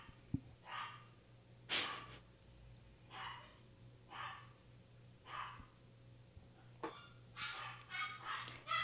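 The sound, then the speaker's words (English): A dog barks in a string of short, rough bursts spaced about a second apart, fairly faint, over a low steady hum with no talking. “I'm just going to wait till the dog yeah, stops.”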